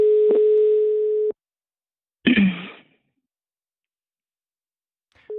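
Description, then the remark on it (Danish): A steady telephone dial tone hums for just over a second while placing a call to a random number, then cuts off; after a pause comes a short breathy sigh-like sound, and the tone briefly returns at the very end. “vi prøver lige at ringe til nogle øh, tilfældige, og så ser vi på det, når jeg lige har modtaget nummeret fra.”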